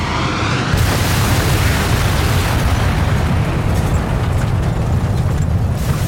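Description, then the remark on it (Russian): A sudden, loud explosion from a mid-air collision between a Tupolev and a Boeing airliner at 35,000 feet (10,600 metres) bursts in after a brief quiet moment, then turns into a dense, sustained roar of rumbling debris and noise that carries on steadily to the end, with no voices. “В последние секунды пилоты увидели друг друга но из-за большой скорости сближения 1300 км в час не смогли уклониться от столкновения.”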